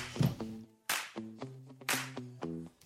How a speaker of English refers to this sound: Ooh, bitch slap.